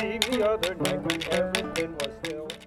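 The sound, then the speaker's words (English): A donkey jawbone, gripped below the front teeth and smacked on the side so its teeth rattle, gives off quick, buzzy, insect-like percussive bursts in a steady rhythm, loud, beneath a sustained melodic voice singing or chanting throughout. “Then she smacks the side, which rattles the teeth into that insect like buzzing sound you hear.”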